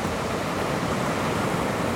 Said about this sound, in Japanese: 波が寄せては引いて心地よい音が聞こえます波の音に耳を傾けていると徐々にリラックスが深まっていきます